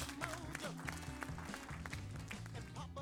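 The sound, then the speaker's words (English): An audience applauds a performer in a dense, continuous patter of overlapping hand claps, steady in loudness for a few seconds, with murmuring voices and a low tonal hum running underneath. “Uh, a round of applause for uh,”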